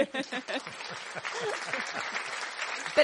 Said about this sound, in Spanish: Me voy a poner aplauso yo misma, mira.